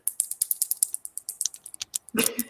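Rapid, crisp clicking of acrylic fingernails tapping together, a steady rhythm of about twenty sharp ticks, ending in a brief louder rustle.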